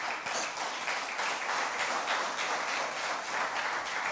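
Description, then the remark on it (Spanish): An audience applauds God during a church service, a dense wash of many hands clapping at once, sustained and fairly loud for several seconds with no speech over it. “un aplauso a Dios.”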